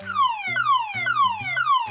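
A police car siren wails in a steady cycle of falling electronic tones, each sweep dropping in pitch and repeating about twice a second, loud and with no voices over it.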